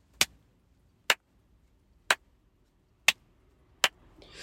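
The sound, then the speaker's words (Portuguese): Five sharp, dry hand claps and finger snaps ring out inside a car at a steady pace of about one per second, each cut off instantly with no echo, in an otherwise quiet, muffled space. “Imaginem, dá para ouvir algumas coisas lá de fora, mas se eu estalar, se eu, se eu bater palmas, o som é seco.”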